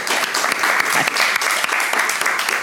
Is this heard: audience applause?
yes